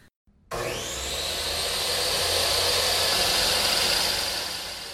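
Loud woodshop machinery, measured at about 90 decibels inside the woodshop, starts abruptly after a brief silence and runs steadily, a broad roaring whine with a high tonal hum that rises slightly in pitch as it spins up, with no talking.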